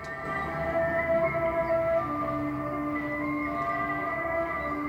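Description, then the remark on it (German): Far Eastern-style welcome music plays alone at the entrance of an exhibition on North Korean everyday life, with long sustained tones layered into a steady, droning texture. The held notes shift slowly in pitch over a constant low hum, with no voices. “Und das fängt bereits bei der musikalischen Begrüßung am Eingang an. Fernöstliche Klänge öffnen uns wortwörtlich Türen in eine unbekannte Welt.”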